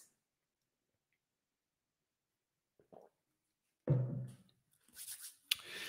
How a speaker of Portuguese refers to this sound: Deixa eu dar um gole d'água antes.